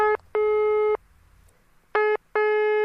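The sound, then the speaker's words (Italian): A telephone ringing tone as Don Diego Lorenzi dials and calls Cardinal Giovanni Colombo: loud, steady electronic beeps arriving in two paired bursts, a short pulse then a longer one, separated by a quiet pause, with no voices. “È don Diego Lorenzi che va a fare il numero di telefono e a chiamare il cardinale.”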